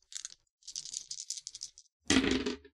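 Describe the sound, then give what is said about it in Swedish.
Dice for a game roll rattle briefly in a cup or hand with a short clattery burst, then a louder, fuller tumble as they're rolled onto a table, clear with no talking. “Jag tänker också alla tillstånd ger minus tärningar på slaget.”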